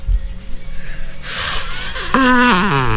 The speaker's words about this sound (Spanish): déjeme, le presento nuestra bubucela para despedirlo. ¿Cómo suena la bubucela para Colombia? Bubucela para Brasil.